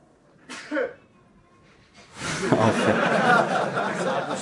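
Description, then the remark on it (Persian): A single quick sneeze bursts out near the start, followed after a short pause by a louder, sustained stretch of noisy laughter and chatter from people. “آفیت بشه اینم صبرش اومد یعنی تایید کرد آره انشالله صبر اومد تمومش بکنیم دیگه”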